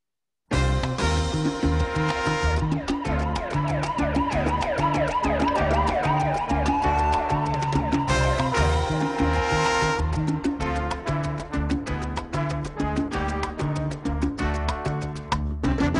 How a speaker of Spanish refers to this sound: Entonces escuchemos una de, un principio de una de las salsas más famosas, sobre todo por ahí, de los años 80.